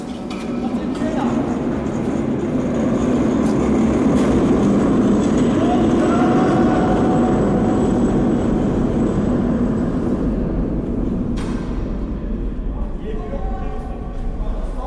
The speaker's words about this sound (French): Est-ce que tu peux nous expliquer c'est quoi tout ce tintamarre un chariot dans des rails dans une station métro abandonnée.